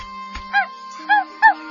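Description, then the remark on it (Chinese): A dog gives three sharp, fierce barks at an uneven pace, the last two close together, over a faint steady hum with no one speaking. “嗯，真是只恶狗，太凶了。”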